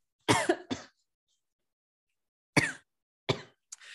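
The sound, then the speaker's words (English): A woman coughs and clears her throat in several sharp, raspy bursts: a quick double cough, a pause, then two more hacking coughs and a short throaty rasp, fairly loud. “She's coughing out her demons.”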